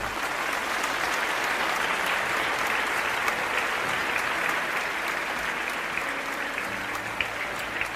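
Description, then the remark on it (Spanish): Loud, sustained applause from a crowd, a dense steady wash of clapping that holds at an even level for the whole stretch without any voices breaking through. “Dale un fuerte aplauso, papá.”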